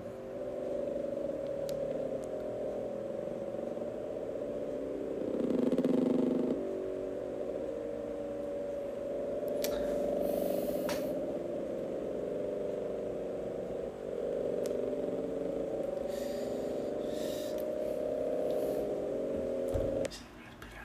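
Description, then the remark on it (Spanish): The mysterious underwater Bloop recording: a loud, continuous low rumbling drone that swells slightly a few times, then cuts off abruptly near the end, with no talking over it. “Aquí les traemos en exclusiva el sonido del blog.”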